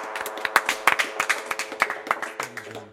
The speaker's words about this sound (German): Ähm, ja, euch nochmal vielen Dank. Äh, bitte einen Applaus für die zwei hier.